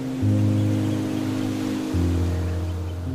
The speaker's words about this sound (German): Spüre das leichte Schaukeln der Wellen und höre dieses immerwährende Rauschen der See.